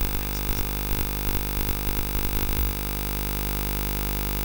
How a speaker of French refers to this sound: Et si je monte, ça sonne comme ça. Ça, c'est le son du signal de la caméra. Plus un petit bruit derrière qui est vient d'une euh, mauvaise soudure peut-être.